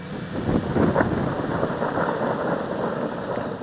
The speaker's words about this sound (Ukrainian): Чуємо гучні розкати. Це не обстріл, це гроза